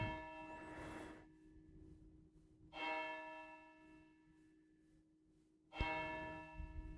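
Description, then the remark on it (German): A church bell tolls the hour at ten o'clock, slowly, three resonant strikes about three seconds apart, each ringing out with a long humming decay before the next, with no voices. “Was habe ich dieses Glockenläuten vermisst, als hier nach der Flut auch kein Strom äh, in der Kirche war lange kein Strom, es hat lange nicht geläutet.”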